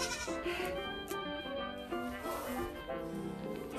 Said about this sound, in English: We have a difficult billy goat, and I'm trying to block him in so that he stops getting out and upsetting the sheep.